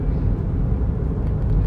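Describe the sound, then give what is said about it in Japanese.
A steady, low engine-and-road rumble of a car driving, constant in loudness with no breaks, filling the whole moment without any voices. “もうすっごく可愛くて高性能で毎日可愛いねって思ってますはい車の話はその辺にして”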